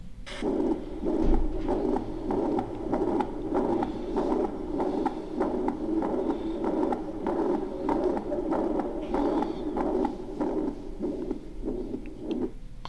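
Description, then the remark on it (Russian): A steady, rhythmic heartbeat with a blowing mitral regurgitation murmur that fills each beat, repeating evenly for the whole stretch, with no voices. “Шум митральной регургитации.”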